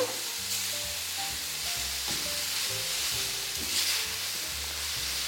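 Steady, loud sizzling of meat being seared in a hot pan over high heat, with scraping and stirring movements breaking through the crackle for several seconds; no one speaks.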